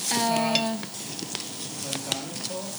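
Onions sizzle steadily in hot olive oil in a pan, a constant crackling hiss with occasional utensil clicks from stirring, while a person talks briefly over it.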